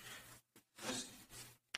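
Rustling bursts of fabric and papery scraping, with a brief zipper-like rasp, as someone digs through a book bag looking for a piece of paper; short pauses separate the shuffling, and no one speaks.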